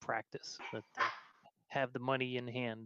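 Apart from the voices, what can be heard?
dogs barking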